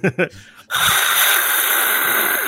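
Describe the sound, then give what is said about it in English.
A voice imitates breathing out a jet of flame: a couple of short breathy grunts, then a loud, sustained roaring hiss that continues steadily for about two seconds. “you fire out a jet of flame”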